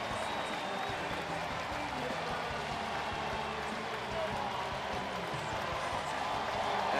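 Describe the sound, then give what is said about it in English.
A baseball crowd at PNC Park, including Mets fans, gives Andrew McCutchen a standing ovation for his 2,000th hit, with Pirates and Mets players on both benches applauding: a dense, even wash of clapping and cheering for about seven seconds with a faint murmur of voices mixed in. “Both benches, Pirates and Mets players applauding.”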